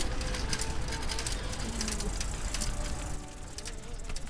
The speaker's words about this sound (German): Da oben, was haben wir denn da? Da ist ein Vogel.